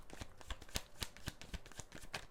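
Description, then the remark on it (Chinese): Tarot cards being shuffled while cards are drawn for a reading: a steady run of quick, crisp papery riffles and soft slaps, repeating roughly every half second with no voices. “好，那我等一下会一边抽牌一边洗牌的方式来做讲解。”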